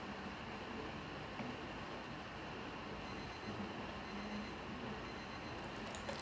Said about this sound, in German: Sorry, da klingelt gerade ein Wecker.